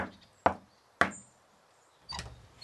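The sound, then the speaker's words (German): A man knocks on a wooden door: two crisp, hollow raps about half a second apart, then a pause and a third, duller knock. No voices, only a faint hush between the knocks. “Transpirierend und beklommen ist er vor die Tür gekommen. Oh, sein Herz klopft so sehr. Hier ist es. Doch am Ende klopft auch er.”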